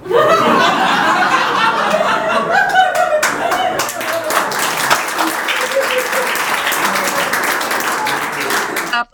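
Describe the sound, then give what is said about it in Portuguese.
A crowd bursts into steady, loud applause with scattered laughter mixed in, the clapping dense and continuous for several seconds before cutting off abruptly at the end. “aplauso, substantivo masculino, ação ou resultado de aplaudir, demonstração de que você achou a pessoa foda ou simplesmente não quis deixar o ambiente em um silêncio constrangedor.”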